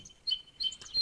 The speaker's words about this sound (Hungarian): És közben hallatszik, hogy a madárnak a hangja, az, amit elvileg éjjája tökéletesen át kéne, hogy engedjen, szar minőségű, mert ez a csipogás, amit hallasz, az ilyen maszatos hangú